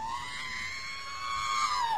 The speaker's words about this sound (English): I also have the Whipple screaming.